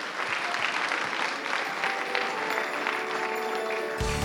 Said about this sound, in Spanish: Póngase de pie, déle un aplauso al Señor en esta mañana.